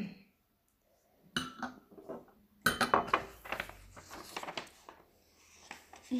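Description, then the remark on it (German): Glasses clink together in a toast: a couple of early taps, then a busy cluster of sharp, bright clinks, with some faint rustling and no talking. “Ich würde sagen, wir stoßen jetzt noch einmal an.”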